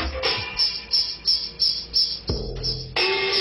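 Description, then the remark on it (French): A Fairlight computer sampler in 1985 plays programmed music scrolling on its screen: a sequenced electronic pattern of chirpy, insect-like tones, repeating in steady pulses about three per second. It briefly drops to a low hum before the pattern resumes, with no voices. “La musique défile sur l'écran et l'échantillonneur la joue.”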